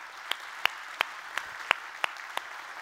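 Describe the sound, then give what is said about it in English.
A church audience clapping together for guests and online viewers in a steady, even rhythm, about three sharp claps per second standing out over a constant wash of scattered applause, moderately loud with no voices. “So, church family, why don't we give our guests and those joining us online, let's give them a great big hand clap today.”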